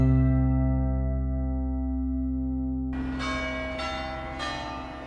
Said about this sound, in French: Avec son clocheton qui sonne l'heure, son apparence massive de style néoclassique et ses proportions carrées, tous les Odomarois connaissent l'hôtel de ville, situé en plein cœur du centre-ville de Saint-Omer